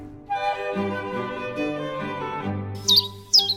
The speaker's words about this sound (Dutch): Oh, jongens, dat is hem! Ja. Oh. Een van de mooiste vogels die er is natuurlijk, met oranje borst.